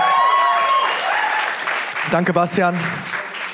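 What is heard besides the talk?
audience applause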